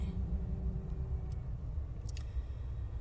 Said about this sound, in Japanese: あ新潟市なんですけど今ねあの今も目の前ね除雪車がブルドーザーが動いてくれてます積雪はそうですねまあ2 0センチってところじゃないでしょうか